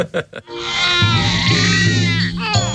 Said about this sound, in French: Do you hear what I hear? a baby cry.